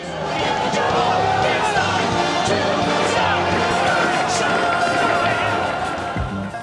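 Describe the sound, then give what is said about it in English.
A crowd of hundreds of cane-wielding demonstrators on the streets of New York, protesting the shutdown of the city's Broadway theaters, fills the air with dense, continuous shouting and overlapping voices, steady and loud throughout with no single speaker standing out. “That's the sound of hundreds of cane wielding demonstrators taking to the streets of New York today to express their outrage over the shutdown of the city's Broadway theaters.”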